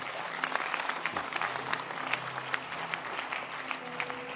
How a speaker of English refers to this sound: Clap your hands for Daddy. It's all.